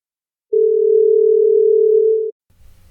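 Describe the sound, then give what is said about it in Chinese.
A single loud, steady telephone call-in line tone holds one low-mid pitch for nearly two seconds, then cuts off abruptly, leaving a faint low rumble. “那接着呢，我们就要来开放 call in 的电话进来喽。”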